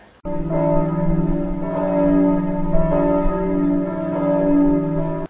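Bells ring out in a full, sustained chime, their rich overlapping tones resonating steadily for several seconds before cutting off abruptly. No voices are heard.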